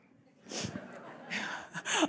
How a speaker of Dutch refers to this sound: Maar ik ga eerst even mijn neus snuiten.